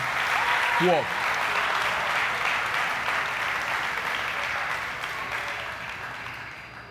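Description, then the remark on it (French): A church audience applauds the sound engineer with dense, steady clapping that carries on for about seven seconds, a brief rising voice cutting through near the start before the clapping eases slightly toward the end. “Eh bien, on nous mettait main nous pour nous applaudir ingénieur de son qui chaque jour a voyé son monter pour nous-mêmes.”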